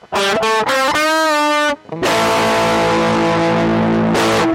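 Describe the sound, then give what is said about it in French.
Loud, gritty distorted electric guitar: a few quick clipped notes, a sustained bending note, a brief pause, then a thick, crunchy held chord ringing out to the end. “Comment a été inventée la distorsion Euh, la distorsion Ah oui, le truc qui fait qu'une guitare électrique sonne comme ça.”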